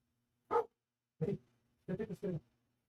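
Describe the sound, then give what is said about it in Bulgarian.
A dog barks about six times: a single sharp bark, a pause, another, then a quick run of four barks in succession. “Мисля, че го накарах да лай по-натам.”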